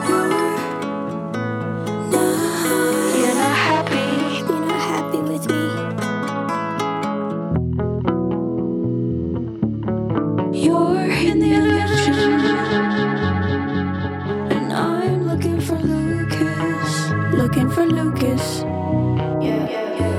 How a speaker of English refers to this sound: Make sure you put on your headphones for this one. You're going to want to hear the painstaking intentionality behind every echo and arpeggio on these tracks.